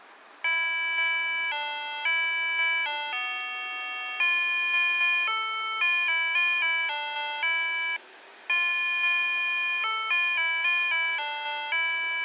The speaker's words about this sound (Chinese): 那你要说路上他们不是有很多那种红绿灯吗？就是 红绿灯都会有那个声音的导览。